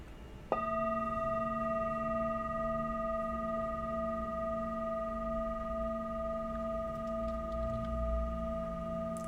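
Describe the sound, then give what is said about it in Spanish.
A singing bowl is struck once during a guided meditation and rings on. Its bright layered overtones sustain steadily and barely fade for several seconds, heard alone without any voices. “Y lo, el sonido que van a escuchar es el cuenco.”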